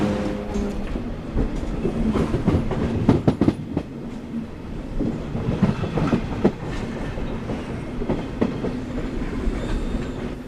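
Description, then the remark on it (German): The Leo Tolstoi passenger train, running from St. Petersburg to Helsinki, rolls steadily along the rails, a low continuous rumble broken by repeated rhythmic clicks and clacks of the wheels over track joints, fairly loud throughout with no voices. “Leo Tolstoi heißt der Zug, der mich von St. Petersburg nach Helsinki bringt, in die finnische Hauptstadt.”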